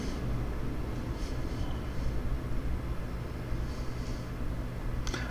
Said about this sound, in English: There is a plane.